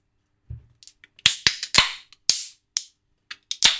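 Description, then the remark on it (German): A Polana Spezi carbonated soft drink is opened on a Wednesday evening: a soft thump, then a run of sharp, crackling hiss bursts that fizz out quickly, with no voices. “Hör mal, das zischt doch gleich. Doch. Geil. Leute, es sind keine leichten Tage. Es ist Mittwochabend und wir trinken Polana Spezi.”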